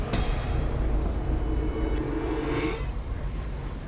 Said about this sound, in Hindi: तेज़ हवा के साथ बारिश भी होने लगी बारिश के बीच तेज़ हवा में उठता हुआ बवंडर बेहद खतरनाक लग रहा था